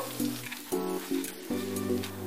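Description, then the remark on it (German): Sizzling of spring onions in a frying pan as a sauce for a fish dish is started, a steady crackling hiss with a low, shifting hum underneath, no voices. “Und dafür nehmen wir als erstes die Frühlingszwiebeln, machen sie in die Pfanne.”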